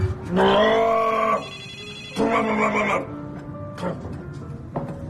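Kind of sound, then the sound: household object, telephone ringing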